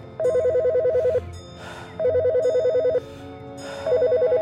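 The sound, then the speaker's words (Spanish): A telephone rings in three loud, warbling bursts about a second long, separated by short pauses. Each burst trills rapidly and clearly over a faint low background hum. “El sonido lo estremece y devuelve a la realidad. Toma la bocina y nota el temblor incontrolable en su mano.”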